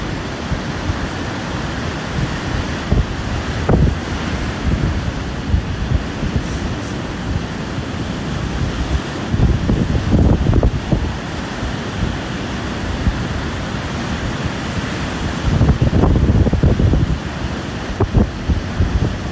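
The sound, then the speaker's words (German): Steady wind roars across a microphone while surf breaks continuously on a North Sea beach on Norderney, with louder bursts of waves crashing around the middle and near the end. No voices. “Ist nicht so lange, aber dann habt ihr so einen Eindruck, wie das klang, als wir dann am Strand angekommen waren von Norderney.”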